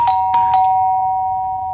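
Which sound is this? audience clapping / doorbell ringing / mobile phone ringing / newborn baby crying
doorbell ringing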